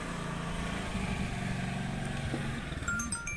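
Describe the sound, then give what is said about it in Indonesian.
A motorcycle engine idles and revs close by, a steady low rumble with a few throttle changes, then settles as a young woman parks the bike nearby. “ada ada mbak-mbak yang parkir motor deket lagi”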